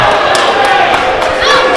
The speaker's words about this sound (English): Kyle throwing Shogun into the chairs now. Yes.